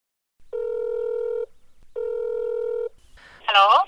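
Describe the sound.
A phone line rings twice with steady, evenly spaced ringback tones, each about a second long, as a call connects to a volunteer in Houston, Texas, then a brief burst of a voice answering right at the end.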